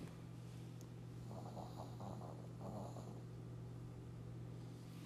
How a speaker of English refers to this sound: Oh my God, that's so cute. Um, but uh, sorry, I got lost in the snores of my little princess.